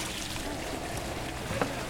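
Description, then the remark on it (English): Steady wash of water and ambient noise at a boat dock where about ten airboats are lying, with a brief knock or splash near the end. No one speaks. “Wir stehen hier gerade am Bootssteg. Da liegen bestimmt zehn Airboats.”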